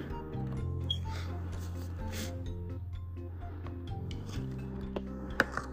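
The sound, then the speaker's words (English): Quiet scratching and scraping as the sharp pin on the back of a name tag slices open packing tape on a box, with a steady musical hum underneath and one brief sharp snap near the end. “I don't have any scissors or anything, but I do have my name tag, which has like a little pin thing on the back, a little sharp pin thing. So I can just cut it that way.”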